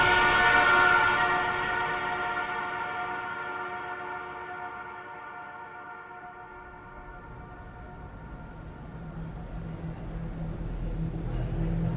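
A train rushes along the railway tracks, reaching a man lying on them, its sustained horn blaring loudly at first and then fading as the rumble of the cars rolls on, with low mechanical clatter rising again toward the end.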